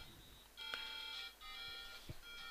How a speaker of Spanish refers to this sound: A ver, un segundo que me están llamando por teléfono. Bueno, ya estoy de vuelta, que se me habían llamado por teléfono al móvil.